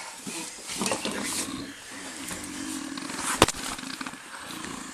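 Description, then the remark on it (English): A person groans in low, drawn-out moans that rise and fall over a noisy background, with a sharp crack partway through and scattered rustling throughout. “I hear someone groaning or something.”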